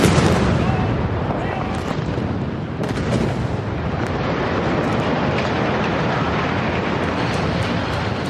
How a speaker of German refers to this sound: Perfekte Sprengung.